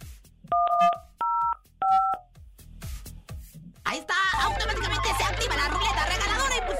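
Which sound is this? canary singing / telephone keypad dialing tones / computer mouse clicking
telephone keypad dialing tones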